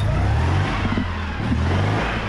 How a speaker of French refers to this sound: Sa ligne résolument dépouillée, sa carrosserie en plastique et la musique désuète mais ravissante de son moteur ont bâti son mythe